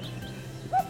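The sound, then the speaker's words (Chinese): A small bird in a wood gives a single short, mid-pitched chirp that rises briefly over a low, steady background hum, with faint higher twittering tones drifting through the rest of the moment. “树林里有小鸟在叫，叫声非常好听。”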